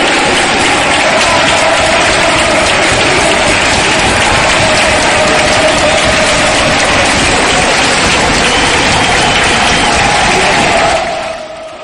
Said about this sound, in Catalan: i entre aplaudiments acabem aquesta secció